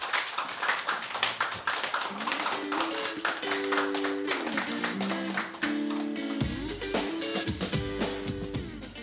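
Steady audience applause, many hands clapping densely and continuously for several seconds, with a soft musical tone sustained underneath and no one speaking.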